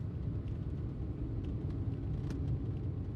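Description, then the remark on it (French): A car's steady low engine rumble and road drone while being driven alone to Nantes, constant and fairly loud throughout, with faint brief clicks and ticks above it and no voices. “J'ai pris la voiture et j'ai filé toute seule à Nantes.”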